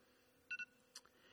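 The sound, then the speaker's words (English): A mobile phone gives two quick electronic beeps, followed a moment later by a shorter chirp. The tones are faint against a quiet background hiss, with no one talking. “And oh, hold on. That's my phone.”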